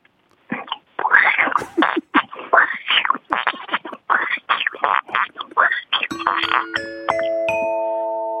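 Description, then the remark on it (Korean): A woman in her late sixties imitates a frog with a quick, rhythmic run of throaty croaks, about a dozen in a row, fairly loud. A rising three-note 'ding-dong-dang' bell chime follows, given by the host, and rings out at the end. “이게 60대 후반의 어르신이 이 개구리 소리 낸다는 자체가 웃겨서 제가 딩동댕을 드린 거예요.”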